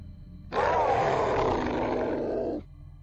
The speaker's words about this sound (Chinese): 僵尸的吼声。一股好似王者一般的霸气，身影在整个墓中回荡。